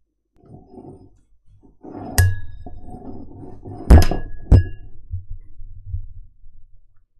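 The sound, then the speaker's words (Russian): A glass knocks against a microphone, three loud thunks with a brief ringing tone, separated by muffled handling rumble and rustling in between. No one speaks. “Надеюсь, вам понравился звук стакана, ударяющегося о микрофон.”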